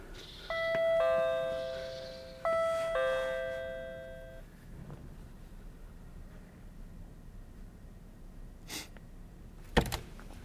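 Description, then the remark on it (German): A doorbell chimes twice in quick succession, each two-tone ding-dong ringing out clearly and fading, followed by quiet room noise and a couple of sharp knocks or clicks near the end. “Ich klingel mal.”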